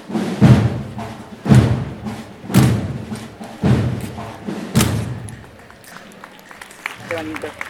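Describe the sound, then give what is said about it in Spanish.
Heavy marching footsteps of a military picket closing the processions in the streets of Cartagena strike in a steady, evenly spaced rhythm, each loud stomp with a bright metallic ring, five or six crisp beats before fading into crowd murmur. “¿Cómo suenan esos, eh, eh, en fin, pasos em, em, tan metálicos y marciales en las calles de Cartagena cerrando las procesiones?”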